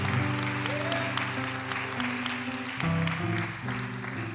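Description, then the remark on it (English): An audience claps hands together in a dense, continuous wash of applause lasting several seconds, with sustained musical tones ringing underneath and no clear speech. “Bible says, clap your hands, all you people.”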